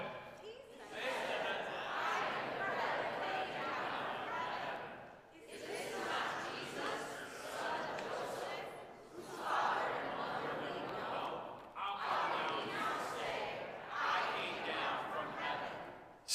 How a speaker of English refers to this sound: They were grumbling. They're talking to one another, like, oh, yeah, yeah, this congregation is very good at doing that. Very good, very good. At this, the crowd began to grumble to, about him.